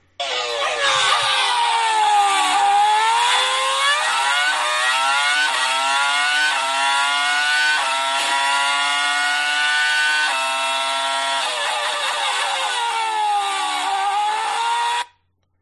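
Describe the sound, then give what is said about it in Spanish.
A Renault V10 Formula 1 racing engine, driven by Fernando Alonso at Magny-Cours, screams at very high revs, its piercing pitch climbing and dropping through quick gear changes, loud and continuous for about fifteen seconds, with no voices. “Eh, V10 eh, de Renault, Fernando Alonso a los mandos, Magnicurs.”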